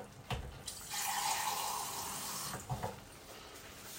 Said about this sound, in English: But let's do a little bit more water.